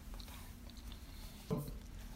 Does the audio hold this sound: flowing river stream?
no